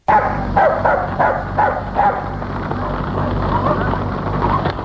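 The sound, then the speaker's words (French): A large black dog in the fields barks in a quick series of five or six loud woofs over the first couple of seconds, followed by a steady low rumbling background noise. “qu'il se promenait dans les champs avec Billy, un gros chien noir”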